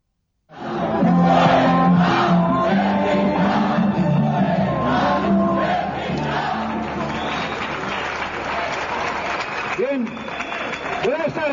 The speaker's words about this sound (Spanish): A mí y a muchos españoles se nos pone la carne de gallina cada vez que escuchamos lo que dice …, dirigiéndose a los que gritan, a los que han venido a romper el mitin con su odio.